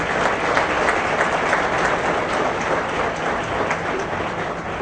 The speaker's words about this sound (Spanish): Gracias a todos por estar aquí en este gran evento. Un fuerte aplauso por su participación y por su apoyo.